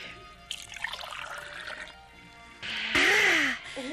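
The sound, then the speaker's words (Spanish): Water is poured into a glass as a drink, a steady splashing trickle that grows louder near the end, where the pitch rises as the glass fills. “Oye, qué mm. éxito de bebida. ¿Qué es? Agua.”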